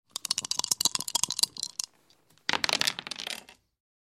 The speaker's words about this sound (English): Okay, now it's your turn. Now I'm going to roll my dice.